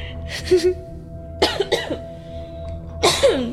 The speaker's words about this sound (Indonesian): Aduh, sampai batuk-batuk anjir.